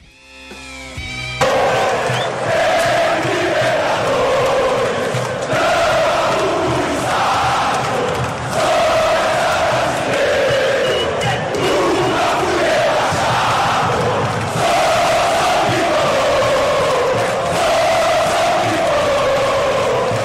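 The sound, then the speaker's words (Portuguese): Football supporters chant 'Sou tricolor' in unison, a chant sung at the Morumbi about the rivalry: a large crowd singing a repeated melodic chant loudly and continuously for about twenty seconds, voices rising and falling together in a steady rhythm. “Então vamos ouvir aí, né? Sou, sou tricolor.”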